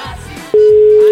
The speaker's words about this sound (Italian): Squilla, squilla, però non risponde.